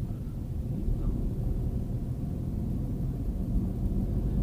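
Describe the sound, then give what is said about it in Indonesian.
A heavy truck rumbles along a ring road in Banyuwangi, its deep, steady engine drone holding at an even loudness for the whole stretch, with no voices. “jalan lingkar di sini tuh kalau dibilang rame itu sebenarnya nggak rame-rame banget sih ramenya itu rame kendaraan truk ya kalau kendaraan pribadi itu malah cenderung sepi kalau lewat jalan sini itu”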